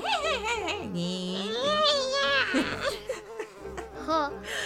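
A voice imitates the flies of a pigsty buzzing and laughing as they beat their wings, a wavering, warbling hum that rises and falls continuously for a few seconds, fairly loud, with laughter-like wobbles mixed in.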